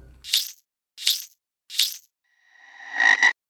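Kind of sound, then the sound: animal, frog croaking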